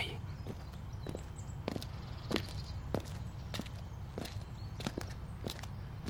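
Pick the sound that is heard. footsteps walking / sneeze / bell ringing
footsteps walking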